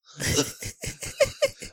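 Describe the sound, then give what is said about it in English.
A raspy fit of coughing: one long harsh hack followed by about five short, rhythmic, strained coughs in quick succession, with no talking. “Coach came out.”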